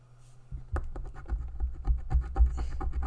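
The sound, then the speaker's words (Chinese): Someone briskly scratches a 美輪虎你旺 scratch-off lottery ticket, a quick, steady run of raspy strokes after a short quiet hum at the start, with no talking. “美輪虎你旺刮刮樂開箱”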